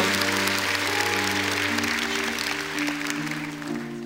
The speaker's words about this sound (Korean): 가운데 찾아오신 보혜사 성녀님께 우리 감사의 박수를 드리겠습니다. 성령님 감사합니다.